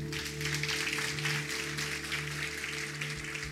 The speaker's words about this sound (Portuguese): Aplauda o Senhor Jesus.